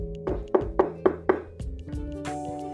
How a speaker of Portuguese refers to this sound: Dirigiu-se, pois, para a casa luxuosa e bateu na porta.